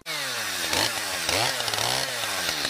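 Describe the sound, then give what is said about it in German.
A chainsaw felling trees in a forest, the Dannenröder Forst in Hesse, runs steadily at high revs, its buzzing engine pitch dipping and rising a few times as it bites into wood. The sound is loud and continuous, with no voices. “Und zum Ausgleich lässt der hessische Verkehrsminister den Dannenröder Forst abholzen.”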